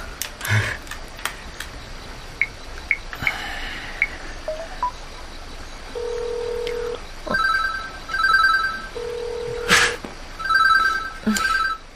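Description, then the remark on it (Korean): A mobile phone rings with a repeating electronic trilling ringtone, sounding in two bursts during the second half, preceded by a few soft clicks and taps. No one speaks. “아, 아, 저 놓고 와서 그런데 핸드폰 좀 빌려주실래요? 전화 한 통만 쓰고 바로 돌려드릴게요.”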